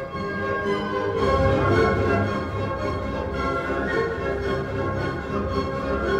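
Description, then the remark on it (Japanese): A full orchestra plays the bright second theme of a symphonic piece in a major key, a flowing melodic passage in a steady rhythm, with sustained strings and a rich, dense texture held at an even, fairly loud level. No one speaks. “続いて明るい蝶で蝶々で、えー、2つ目の主題が出てきますここからですね”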